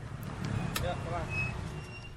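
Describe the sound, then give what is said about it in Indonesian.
The engine of a three-wheeled garbage collection vehicle with a rubbish bin at the back rumbles steadily, a low continuous drone with faint chirps and what sounds like voices mixed in. “Sampah diangkut secara berkala dengan ini. Sebuah kendaraan roda tiga dengan bak sampah di belakangnya.”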